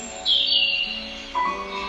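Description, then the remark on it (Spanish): Small birds chirp and sing in a steady, bright stream of high tweets, clear, with a second burst of calls joining near the end. No one speaks. “Comienzas a escuchar los pajaritos volar, cantar.”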